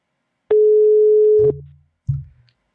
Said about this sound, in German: Ah, das klingt schon es gut. Es klingelt.